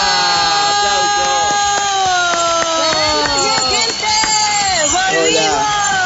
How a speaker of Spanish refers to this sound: Ahí está la campanilla que arranca el combate.